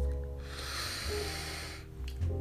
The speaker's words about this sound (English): So this one right here, we gonna we gonna take a deep breath,